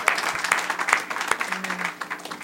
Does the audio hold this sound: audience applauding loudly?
yes